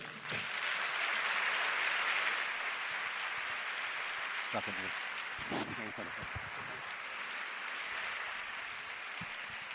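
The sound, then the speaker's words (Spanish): Steady, dense applause from a congress audience welcoming a guest speaker, a continuous wash of many hands clapping at even loudness throughout, with a few brief voice-like sounds mixed in partway through. “Y bueno, pues yo creo que es un lujo tenerlo de nuevo en el Congreso por segunda vez y voy a pedir un fuerte aplauso para recibirlo.”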